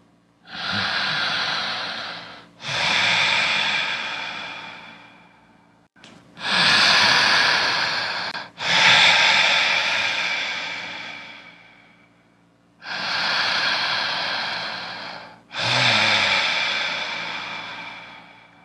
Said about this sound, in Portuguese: E quando você percebe a posição, pode começar começar a circular pela boca, puxando bastante ar. Nesse momento, só respirando e percebendo o teu canal central da mesma forma.